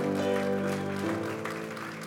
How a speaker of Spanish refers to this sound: Denles aplauso fuerte a Cristo.